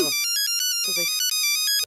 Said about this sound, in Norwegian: Ja, var, var det her ringte hun til faren din? det er Nokia der.